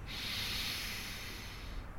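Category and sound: human body sound, slow deep breath in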